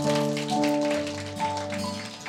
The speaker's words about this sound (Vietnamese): Hallelujah, chúng ta hãy dâng cho Chúa một tràng pháo tay ạ.